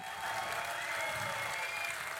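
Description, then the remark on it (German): Steady applause from an audience, a dense, even wash of clapping at moderate loudness that continues without a break for the full couple of seconds. “Dafür haben wir ihn immer geliebt, auch wenn er nicht immer leicht war, aber er verdient einen großen Beifall.”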